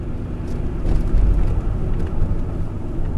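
A steady low engine drone and road rumble heard from inside a van (wagon) heading to Okutama, with a continuous muffled hum and slight swells in loudness, no voices present.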